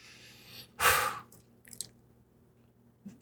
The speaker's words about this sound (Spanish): Traguito ahí largo